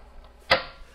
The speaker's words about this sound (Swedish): Vi spolar tillbaka bandet.